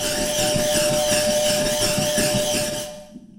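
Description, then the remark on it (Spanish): A bullroarer (zumbidor), an indigenous Brazilian instrument, in a piece, whirs in a loud, continuous drone whose pitch wavers up and down in steady swoops, with a sustained tone underneath, before cutting off abruptly near the end. “Instrumentos autóctonos, zumbidor, berimbau, pau de chuva, flautas indígenas de Brasil y Chocal.”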